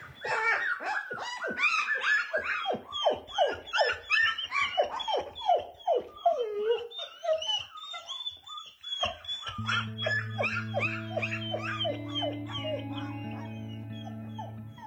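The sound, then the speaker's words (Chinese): Rescued young grassland wolf pups, raised by hand, whimper and yelp in a rapid flurry of high, whiny cries. After a brief pause, long, steady sustained tones hold beneath fainter whines. “草原狼也是救助来的这些狼嘛，都是就是我养的都是小狼，所以就是就是那种怯生生的眼神儿，特别胆怯”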